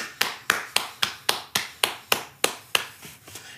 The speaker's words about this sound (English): I'm going to I'm going to make you hear my clap because I'm so proud of the way Daniel Jones played today. So everyone give a big shout out and a big uh, sort of round of applause for Daniel Jones.